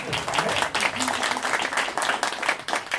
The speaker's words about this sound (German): Äh, also nochmal Applaus bitte.